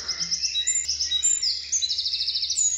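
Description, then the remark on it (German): Bright, high-pitched birdsong played from a birdsong CD, with rapid trills and repeated chirping phrases, clear, over a faint low hum, with no voices. “Also ich habe jetzt mal eine Vogelstimmen-CD gekauft, versuche ihnen zu vermitteln, guck mal, da sind die Vögel mit den Geräuschen.”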